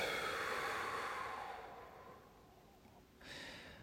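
A long breathy exhale after a deep breath during a guided meditation rushes out and slowly fades over a few seconds, followed by a brief soft intake of air near the end. No one speaks.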